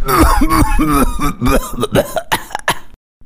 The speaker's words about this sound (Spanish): No lo puedo creer, no lo puedo creer. Qué maravillosa tos tiene, hermano. Bueno, creo que está claro quién va a ganar este certamen, ¿no?